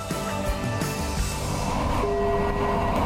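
A train rumbles steadily as it arrives at its terminus in Krefeld, Germany, its low mechanical drone and metallic hum filling the space, with a sustained tonal whine rising in the second half as it rolls in.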